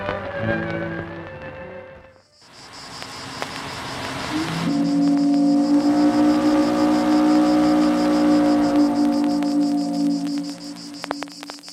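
A boat passes with a steady, deep droning tone that swells in after a brief lull and holds for several seconds, backed by a constant high chirring hiss; no one speaks.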